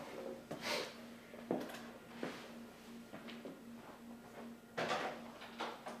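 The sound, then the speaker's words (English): A door being opened for a visitor, with several short clunks and rattles spread across a few seconds over a low steady hum, fairly quiet, with no talking. “Somebody probably that door.”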